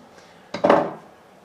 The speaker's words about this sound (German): Und jetzt kocht das Wasser, wir geben den Jasminreis hinein.